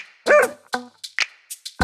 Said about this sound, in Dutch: mijn hond die noemt Ragna.